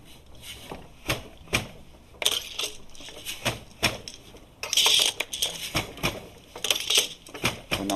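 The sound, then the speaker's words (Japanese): A foot-operated weaving loom at a weaving experience centre clatters in steady use as a course instructor passes the threads one by one right and left while working the foot pedals. Repeated sharp wooden knocks and rattles come at an irregular beat, some bursts denser and louder than others, with no talking. “右へ左へ繊維の一本一本を通していき、はい、足踏みしながら機械を動かしていくっていうね、ね、作業になりますが”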